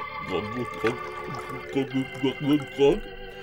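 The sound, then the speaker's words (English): Water pours into a glass, followed by a series of gurgling, swallowing pulses, with a faint steady hum underneath. “Water it is.”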